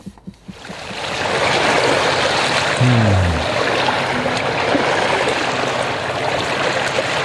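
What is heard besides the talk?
ocean waves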